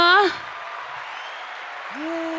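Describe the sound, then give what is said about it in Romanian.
Steady studio audience applause on the show Online-ul e viața mea, a dense wash of clapping for a couple of seconds, while a voice speaks briefly over it at the start and again near the end. “Să trimiteți oamenii acasă să nu mai stea aici să mă aplaude.”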